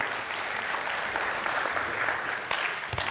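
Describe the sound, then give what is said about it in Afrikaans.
An audience claps for the band in steady, sustained applause, a dense wash of many overlapping claps holding an even loudness throughout with no speech over it. “Ag gee vir die orkes 'n lekker hande klap toe.”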